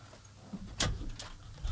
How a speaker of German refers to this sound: kurz mal eben die Tür aufmachen.